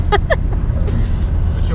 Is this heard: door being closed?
no